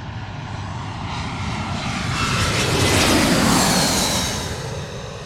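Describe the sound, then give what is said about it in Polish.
A low-flying United airliner roars overhead, its broad engine rumble and whining jet hiss swelling to a loud peak midway and then slowly fading. No one speaks. “United z Orlando. Na pewno United, ale czy z Orlando to nie jestem pewna.”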